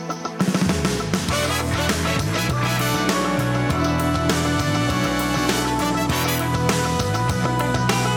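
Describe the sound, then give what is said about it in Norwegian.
A loud, full-band instrumental jingle bursts in after a brief pause and plays continuously, with steady bass, bright layered melody and a driving rhythm, like a TV show opening theme. “Her kommer vignetten.”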